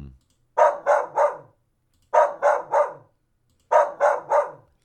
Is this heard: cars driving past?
no